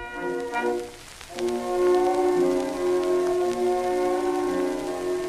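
An old 78 rpm record begins with a short instrumental intro, sustained horn and band tones rising over a steady bed of crackling surface noise and hiss, with no singing yet.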